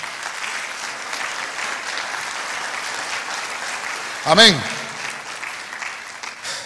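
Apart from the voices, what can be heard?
audience clapping loudly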